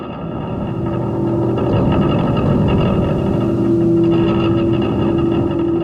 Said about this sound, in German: Und die Nebusignal, die hört man dann so zwischen Santa Cruz und Jenner, das ist in Nordkalifornien. Und ich glaube, das ist gerade das, was wir gehört haben, weil wenn man genau hinhören, hört man auch ein bisschen Wind im Hintergrund.